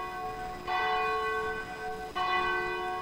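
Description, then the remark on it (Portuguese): The bell of the Cathedral of Our Lady of Aparecida in Brazil tolls twice at twelve minutes to 10 p.m., about a second and a half apart, each strike ringing out with rich, lingering overtones that carry into the next. No voices are heard. “Agora faltando 12 minutinhos para as 10 da noite, toca o sino da Catedral de Nossa Senhora de Aparecida, a padroeira do Brasil.”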